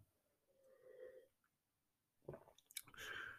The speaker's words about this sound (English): Hold on. I'm going to have a glass of red. A sip of red, sorry.